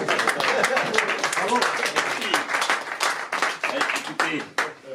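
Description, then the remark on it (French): An audience applauding Jean-Marc Daniel as he is invited to give a final address, steadily for the full five seconds, a dense, crackling wash of many hands clapping at once, loud and sustained, with no clear voices over it. “Bah, comme l'a dit Mathieu, vous commencez par applaudir, peut-être qu'après vous serez moins content.”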